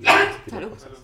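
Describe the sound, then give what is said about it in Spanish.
A single loud sneeze caused by an allergy bursts out sharply, then trails off into a quieter breathy, voiced tail. “Salud.”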